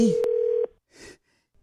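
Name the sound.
telephone dialing tones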